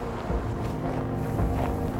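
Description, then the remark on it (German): Howling mountain wind roars steadily and loudly, a dense rushing wash with deep rumbling buffets and no voices. “Er schreit so laut er kann, um den heulenden Wind zu übertönen.”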